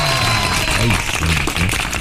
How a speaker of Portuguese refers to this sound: palmas para ela!